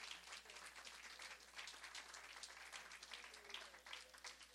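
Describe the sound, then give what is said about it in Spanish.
A church gathering applauds steadily in praise of the Lord as a recognition is presented to the pastors, many hands clapping in a dense, continuous patter that holds an even, moderate loudness for the whole few seconds, with no voices standing out. “Un aplauso al Señor.”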